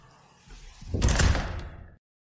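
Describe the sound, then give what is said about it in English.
A door swings and slams shut with a single heavy thud that rings out briefly before cutting to silence. No voices are heard. “I'm off through this door to hang out with David Bowie in 1973.”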